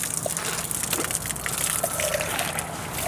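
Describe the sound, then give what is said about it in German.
Water pours and splashes in a steady stream from a child's watering can, a continuous watery hiss with small irregular splatters throughout. “Wo hast du jetzt plötzlich diese Kinderwieskanne her?”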